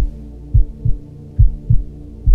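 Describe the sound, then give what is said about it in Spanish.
A slow, deep heartbeat thumps in paired beats, lub-dub, lub-dub, low and muffled over a steady hum, with no voices. “Ahí en ese momento hay quietud, escuchando el sonido del corazón que tenemos en el fondo.”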